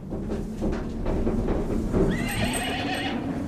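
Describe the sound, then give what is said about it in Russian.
A horse whinnies with a rising, quavering call near the end, over a steady background of hooves clopping and shuffling, as horses stand waiting at the front porch of a house. No one speaks. “А лошади уже стоят у крыльца.”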